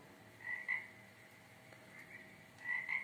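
A toad croaks in two short bursts of paired, chirpy calls, one near the start and one at the end, fairly soft over a quiet background, with no talking.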